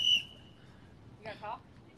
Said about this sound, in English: Not her having her own whistle. We have a whistle in the background now. We got a whistle right in the ear.